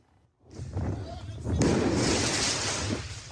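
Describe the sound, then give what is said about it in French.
A sharp firework mortar bang bursts out partway through, followed by a sustained loud, hissing rush of noise, with people's voices and commotion mixed underneath, as firework mortars are fired at firefighters on an intervention during the night of 14 July in the 20th arrondissement of Paris. “À Paris, les dégâts de la soirée du 14 juillet sont importants des actes de vandalisme, mais aussi de violence, comme ici dans le 20e arrondissement, où des pompiers en pleine intervention sont visés par des tirs de mortier.”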